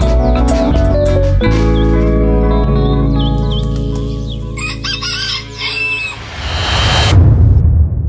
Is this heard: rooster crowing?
yes